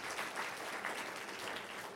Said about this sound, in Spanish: Un aplauso a cada mujer aquí, por favor.